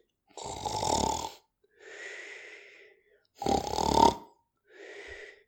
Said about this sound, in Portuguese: O ressonar é o som provocado pelo ar ao tentar passar pela garganta com pouco espaço. É como se o barro tivesse caído, mas ainda conseguisse passar algum ar, só que com muita dificuldade, e isto dá este som, o ressonar.